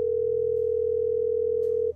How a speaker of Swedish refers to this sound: Du ringer. Signalerna går fram.